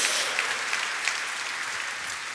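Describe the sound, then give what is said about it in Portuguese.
A large audience claps loudly and continuously, giving glory to God in the name of Jesus, a dense wash of applause that holds steady throughout, with voices of praise blending into the crowd noise. “Pode dar um glória a Deus mais alto em nome de Jesus.”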